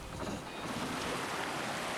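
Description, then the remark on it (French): Steady outdoor ambience on a sailboat deck under a sunny blue sky with a light breeze and a large colorful sail filling, with a continuous wash of water and wind noise at a moderate level and no voices, broad and unbroken for the whole stretch. “Sur le pont d'un voilier”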